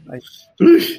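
One sharp, explosive sneeze bursts out after a short, quiet breathy intake. It is loud and abrupt, then fades quickly.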